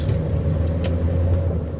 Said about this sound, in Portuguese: Em instantes, o veículo ganhava a Avenida Beira-Mar.